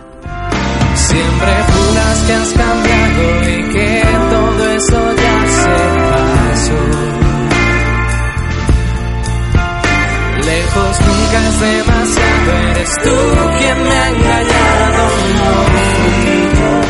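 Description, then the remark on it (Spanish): A loud, dense remix of a song plays continuously, with a steady punchy beat, full bass and bright layered synths beneath a sung vocal line. It is one of ten remix versions of the same track, released on physical CD on 4 December. “Y te presenta a unos remixes alucinantes que se presentan en formato físico en CD el 4 de diciembre.”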